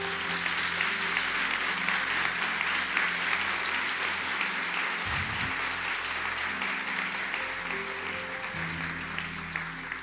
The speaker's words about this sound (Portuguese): Quero que você aplaude a Deus pela fé desse homem aqui.